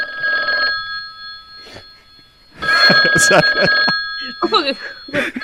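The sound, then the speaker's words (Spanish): A telephone rings with a steady electronic trill that holds through the whole stretch, while people talk loudly over it in the second half. “que suene el teléfono.”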